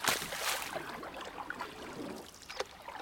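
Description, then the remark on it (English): An ostrich character in rubber boots splashing in shallow mud puddles, with a broad wet hiss and repeated sloshing bursts, the last one sharper, with no voices. “Ostrich loves to splash around in mud puddles.”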